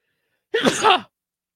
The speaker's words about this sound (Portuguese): Eu vou espirrar. Eu vou espirrar. Eu vou.